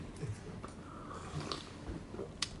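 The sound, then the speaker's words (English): Quiet sipping of coffee: a few soft slurps and small mouth and swallowing noises scattered over a couple of seconds, with no talking. “I was just to buy myself time to take a sip of coffee.”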